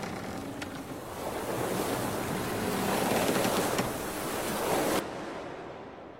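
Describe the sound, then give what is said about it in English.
Steady wash of waves surging around a ship at sea, a broad roaring hiss with gusts of wind, swelling and easing before cutting off abruptly near the end. “I'm lying on the deck of a ship.”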